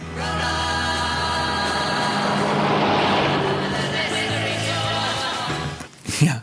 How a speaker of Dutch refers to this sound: Tape volume 36 Traffic Noise Stereo. En dat, zijn, eh, dat, dat is een bus.